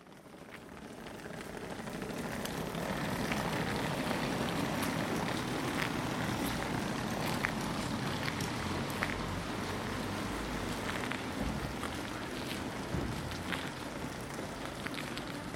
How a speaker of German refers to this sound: Das war ein Rollkoffer. Und das hier ist ein Bahnhof in einem kleinen Ort bei Hamburg. Es ist ein Samstagvormittag Ende November 2022. Kalt und ungemütlich.